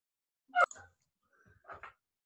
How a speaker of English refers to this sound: well, here's the dogs barking